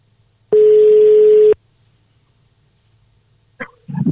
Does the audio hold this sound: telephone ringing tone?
yes